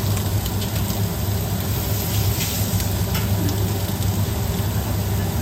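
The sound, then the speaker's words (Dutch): Hot water, a little too hot, pours in a steady, unbroken hissing stream for several seconds onto instant noodles, with a low hum underneath and no voices. “Oh nee, ik mors. Natuurlijk mors ik. Het water is ook een beetje heet.”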